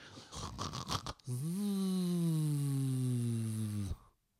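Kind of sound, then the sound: vocal imitation, person imitating snoring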